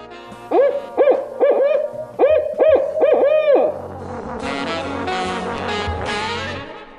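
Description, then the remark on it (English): A burrowing owl above ground gives clusters of short, rising hoots in quick succession, then shifts into a harsher, raspy chattering call. It is clear and fairly loud, with no talking. “Here's what the burrowing owl sounds like when it's above ground.”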